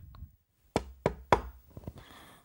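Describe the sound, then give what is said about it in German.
Three sharp knocks on the wooden door of a sister's room at home in an even rhythm, fairly loud, followed by a couple of softer thuds and a faint rustle, with no talking. “Gehe nach hinten, klopf bei meiner Schwester an.”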